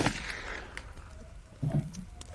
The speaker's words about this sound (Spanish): Eh, un disparo al pobre Pinkerton que queda ahí tendido en el suelo.